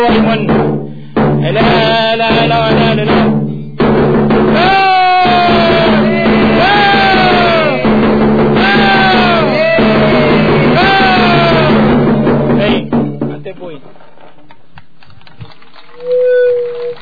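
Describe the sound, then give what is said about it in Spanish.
A crowd gives a Mapuche applause of four loud, drawn-out shouts in unison, evenly spaced a couple of seconds apart over a steady murmur of voices, at a cultural day tribute, before the noise falls away to near quiet. “aplauso mapuche son los cuatro gritos, así que acompáñennos y a full”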